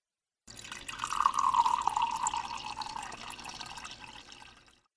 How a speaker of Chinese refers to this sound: 他说着，麻利的给我倒了一杯水。